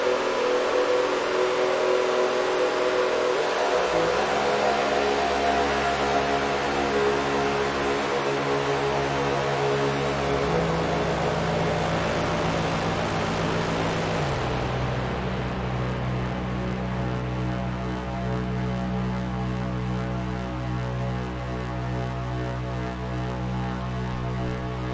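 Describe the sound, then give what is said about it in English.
A continuous modular synthesizer drone with strong harmonic layers that step down in pitch a few times, the modulation oscillator's second output on the 259 feeding the delay unit's modulation input, giving a wavering, gritty, engine-like texture throughout with no voices. “Um, I also have the modulation oscillator's um, second output on the 259 going into the uh, modulation uh, input on the delay unit. So if I turn that up, it can get kind of nasty.”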